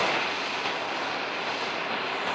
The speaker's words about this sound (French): C'est un va-et-vient incessant sur le tarmac de l'aéroport de Gaziantep.